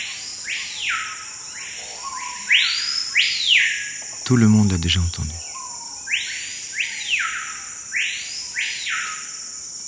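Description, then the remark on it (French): Loud, ringing whistled calls of a screaming piha, locally called cricrio, repeat in bold sweeping phrases over a steady insect drone in tropical forest undergrowth, with a man briefly speaking in the middle. “Le lipogus vociférance.”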